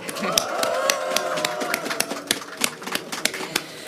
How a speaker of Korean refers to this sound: 역사상 가장 훌륭한 대한민국 주인 시민들이 바로 이 광화문 촛불 현장에 함께하고 계십니다. 시민 여러분 박수 한번 해주시기 바라겠습니다.